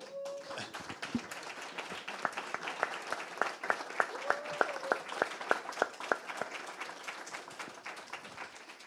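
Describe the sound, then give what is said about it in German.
Audience applause at the close of a panel discussion: a dense, steady patter of many hands clapping, with a few sharper individual claps standing out through the middle, sustained for the whole stretch without talking. “bedanke mich bei Ihnen, wollte ich noch anfügen, aber dann kam der Applaus.”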